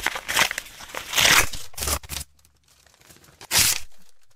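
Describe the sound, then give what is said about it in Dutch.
A thick envelope from the Vereniging Zaagwedstrijden Bergrijk being torn open: a run of rough, crackling rips for about two seconds, a short pause, then one final quick tear. No one speaks. “Eh, Voorzichtig zijn ze tegenwoordig met dikke enveloppen.”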